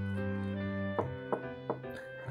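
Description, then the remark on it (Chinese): Three evenly spaced, sharp wooden knocks on a door, clearly standing out over a soft, sustained musical tone that plays throughout. “正当他吃得过瘾，忽然又听到一阵敲门声”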